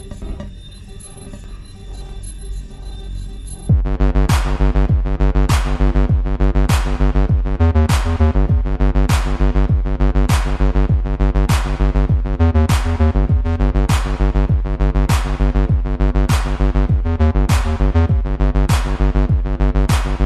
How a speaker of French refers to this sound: On va quand même écouter. un, ah, un autre morceau de la, cette bande son de Hotline Miami qui déchire quand même.